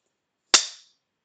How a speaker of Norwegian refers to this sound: Jeg sitter med en sånn sånn som de bruker når de lager filmer. Filminnspillinger, vet du. OK, vi er i gang. Vær så god. Klar. Kjør.